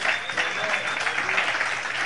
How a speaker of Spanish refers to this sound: Démosle un aplauso al Señor por las buenas personas.